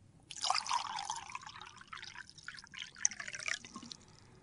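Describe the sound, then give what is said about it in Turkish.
Water poured out of a glass splashes and trickles steadily for several seconds, a bright, gurgling stream, with a few louder drips and splashes near the end. “Bardağı dök.”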